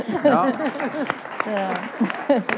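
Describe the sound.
A handful of light, irregular hand claps, crisp and short, scattered beneath people talking and voices rising and falling in lively conversation.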